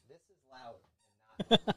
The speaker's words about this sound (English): this is loud. She's like, let me let me get right next to you and squeak my squeaky toy.